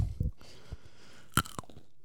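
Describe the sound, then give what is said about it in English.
A crisp crunch as someone bites into a thumb-sized whole fruit, popped into the mouth skin and all: a sharp crackling bite followed by a second, smaller crunch, with soft low thumps of chewing before it and no talking. “All right. crunch. Like, crunch Check it, out, guys.”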